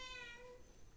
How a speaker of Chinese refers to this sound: 哎呦，不要叫啦！不好意思，有猫咪爱讲话的小猫咪。